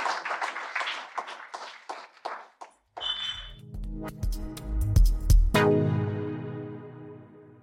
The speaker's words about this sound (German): die rollenden Bierflaschen. Klingt fast wie in der Konzertpause vor der Zugabe im Coney Island.